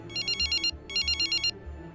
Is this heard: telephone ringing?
yes